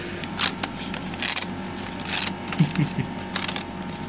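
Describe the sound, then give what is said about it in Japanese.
Dry, crisp crackling and ripping of thin sheets of dried Ariake nori seaweed from Fukuoka being torn into small pieces as preparation for making tsukudani, in repeated short bursts, with no talking. “今はですね佃煮作りの下ごしらえというか、まあ、まず海苔を細かくちぎるというところからスタートしています”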